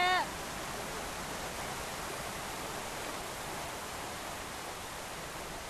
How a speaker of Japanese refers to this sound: ちょっとあの滝の近くまでやってきたんですけど実はここの滝は滝の真下を通れるということでねせっかくなんで通ってみよう。